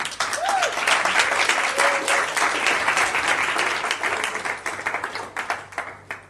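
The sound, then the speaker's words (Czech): A crowd applauds a woman steadily for several seconds, many hands clapping in a dense, continuous wash that stays loud throughout, with a faint whoop or cheer near the start. “Já ti moc poděkuju, pojďme ji zatleskat.”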